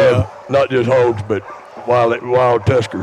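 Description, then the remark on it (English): Dogs bark and yip in the background, partly buried under a man talking in the foreground, as a 20-foot trailer full of hogs is brought in. “Yeah, and you can maybe hear the dogs in the background all oh, sounding off.”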